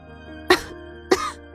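Two heavy, harsh coughs from a young woman, each a sudden loud burst with a short rasping tail, spaced about half a second apart over a low steady background hum.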